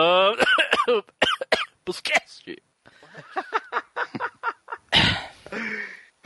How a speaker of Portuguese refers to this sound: você tossiu de verdade? Não, né? Ai, ai. Porra, não. Ah, claro que não.